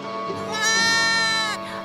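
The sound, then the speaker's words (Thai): A lamb bleats in one long, wavering cry to a wolf that swells louder in the middle and then trails off, clear with no talking over it. “ลูกแกะจึงตอบไปว่าก่อนหนูจะตายอะหนูอยากให้พี่หมาป่า เป่าปีให้หนูฟังหน่อยได้ไหมจ๊ะ”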